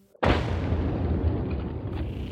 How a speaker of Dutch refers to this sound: To smash the icy surface, charges of 808 are prepared by the Royal Canadian Engineers.